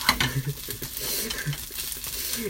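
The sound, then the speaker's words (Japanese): Fried rice with scrambled egg being stir-fried in a frying pan, not a wok, at home: a steady sizzle with scraping and tossing, grains shifting and the pan clattering in uneven bursts, fairly loud with no voices. “うん、フライパン回すのだけはいいんですけどね。”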